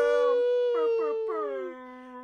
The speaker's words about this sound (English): Oh, dog. Australian Shepherd. Say hello, Boomer. Say hello.